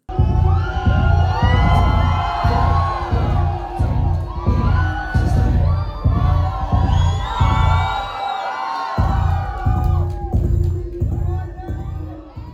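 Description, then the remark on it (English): A steady, pulsing bass line thumps low and loud beneath a roaring live concert crowd as a song kicks off, against light vocal melodies, with cheers, whoops and shouting voices swirling over the rhythm throughout. “Then you hear the bass start to pick up against the light vocal melodies.”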